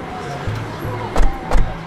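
Two quick, solid thumps of a car door shutting, a fraction of a second apart, over a low outdoor background hum with no talking.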